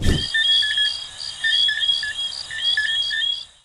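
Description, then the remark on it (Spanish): A night chorus of Antillean coqui frogs in Caracas, tiny frogs no more than 2 to 3 centimeters long, many overlapping high, whistling chirps repeating in a steady, insect-like rhythm, continuous, with no one talking. “Ese sonido los hacen los sapitos coqui, para ser más específico, los sonidos coqui antillano, que son sapitos que hacen un ruido durísimo, pero no mide más de 2 y 3 centímetros”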